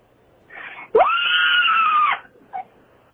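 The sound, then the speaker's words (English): A single loud, desperate human scream sustained for about a second, rising sharply at the start, with a short breathy sound just before and a brief gasp afterward. “That was a that was like a dire scream.”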